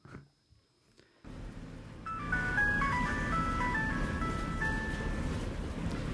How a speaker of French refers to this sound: Tu vas couper ton haut-parleur de portable, tonnerre de brésilien